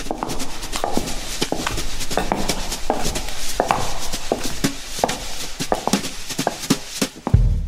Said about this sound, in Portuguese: Nós já a seguir vamos aos passos perdidos para umas palmas raras.